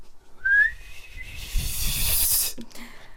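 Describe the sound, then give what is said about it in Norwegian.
A cheap, poor-quality referee whistle is blown once: a thin, breathy tone held for a couple of seconds, rising slightly before dissolving into a loud airy hiss, then a brief low sputter at the end. “Har du hørt min fløyte? Ja, men jeg kan gjerne høre den igjen.”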